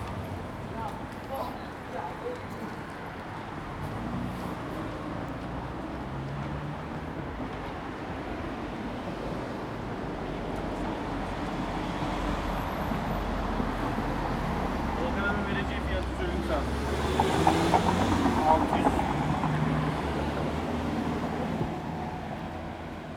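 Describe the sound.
A steady roar of city street traffic fills the scene, with indistinct voices mixed in; the rumble builds and grows louder toward the end as vehicles pass.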